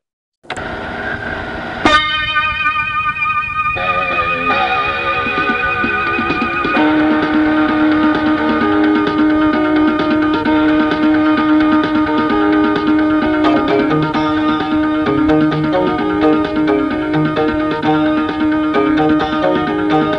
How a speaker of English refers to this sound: Insert wolf music.